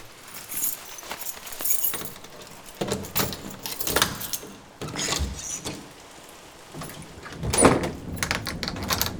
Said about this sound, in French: Bon, est-ce que j'ai mis mes clés